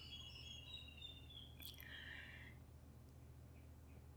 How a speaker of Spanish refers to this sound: Están tan terribles los pajaritos hoy, no sé si se están escuchando de fondo, no sé cómo voy a hacer la edición, pero hoy están terribles los pajaritos. Me encanta igual.